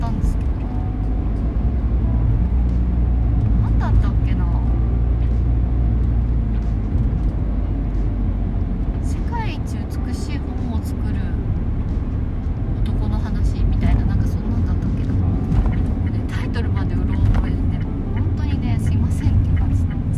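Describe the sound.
Steady, loud low rumble of a car engine and tires on the road from inside a car driving out to buy supplies under a blazing sun, continuous throughout, with occasional small clicks and faint muffled voices.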